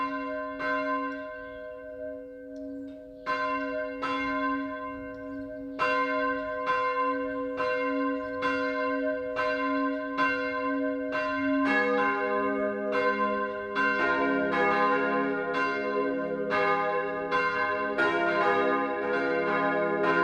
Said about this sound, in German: Es ist zwölf Uhr. Das Mittagsläuten kommt heute von der evangelisch-lutherischen Dorfkirche im oberfränkischen Pilgramsreuth.